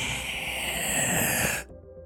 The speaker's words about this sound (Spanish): A ver, perfecto, vamos a hacer ejercicios de respiración. Respiren, inhalen.